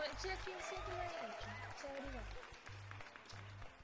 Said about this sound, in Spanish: Así que mm. un aplauso para el CERVEL por esto.